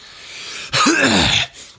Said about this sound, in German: Entschuldigung, also Entschuldigung, wenn ich mich jetzt im ein oder anderen Mal räuspern muss, das liegt ähm, an meinem grippalen Fleck, äh, Inflekt, moin, an meinem grippalen Infekt, der sich langsam aber sicher durch meinen Körper ziert.